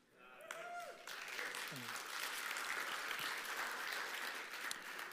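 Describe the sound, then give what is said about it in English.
A crowd breaks into sustained applause for a preacher's 47 years of marriage, swelling quickly and holding steady, a dense wash of clapping hands with a few brief vocal sounds at the very start. “Yeah, I, I do need a round of applause for being married to her that long.”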